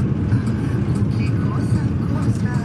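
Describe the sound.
Steady, loud low engine rumble and road drone fill the inside of a moving bus, with faint murmuring voices mixed into the constant hum.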